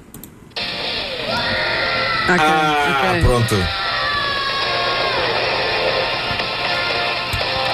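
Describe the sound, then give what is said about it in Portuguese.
A raw, wavering opening scream from a recorded song plays from a laptop speaker into a microphone pointed at the laptop, with band-limited, tinny playback; it peaks loudly midway and music continues beneath. A person briefly speaks at the start. “É pá, quem grita assim, aquele grito de abertura é incrível, pá.”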